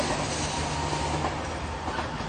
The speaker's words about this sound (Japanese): あ電車来たんでちょっと